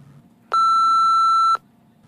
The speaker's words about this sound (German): Sag mal, wir können es ja piepsen.